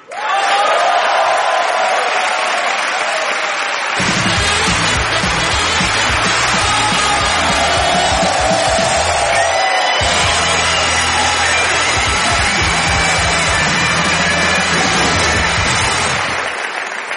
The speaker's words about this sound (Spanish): ¿Por qué me aplaudís que no me conocéis de nada? Sí, es, eh, la primera vez que vengo, gracias, ¿eh?